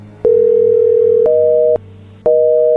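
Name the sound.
telephone dial tone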